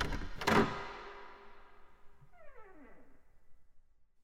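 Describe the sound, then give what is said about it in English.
A door clunks as its latch gives, then swings open with a drawn-out, squealing hinge creak that slides downward in pitch, with no one speaking. “I creaked open the door.”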